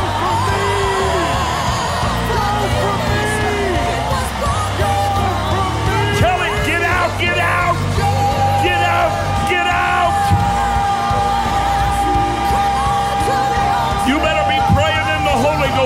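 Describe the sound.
A crowd of voices shouting together, on a count of three, "in the name of Jesus, you go from me" in a loud, sustained roar of overlapping yells and whoops, with bursts of higher cries rising above a dense, continuous babble.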